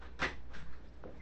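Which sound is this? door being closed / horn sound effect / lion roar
door being closed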